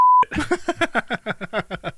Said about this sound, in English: hopefully that beep has been uh, it's been beeped this time around, so it's good.